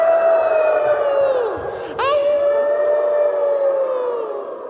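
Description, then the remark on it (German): A crowd of children howl together like wolves, a long, loud, wavering cry that dips briefly, then rises and carries on steadily before slowly fading near the end. “Lasst mich hören, wie ihr alle Wölfe seid.”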